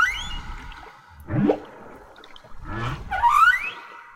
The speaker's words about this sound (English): We're just going to sit back and let you listen to some whale song recordings featured in the film as we end this episode. They are both beautiful and haunting.